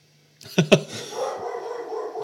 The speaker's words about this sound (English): get ready to hear some barking because there's people walking by in the street